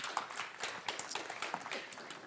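Steady applause from an audience as a person is welcomed to the front, a dense crackle of many hands clapping at once, sustained evenly for a couple of seconds without any voices over it.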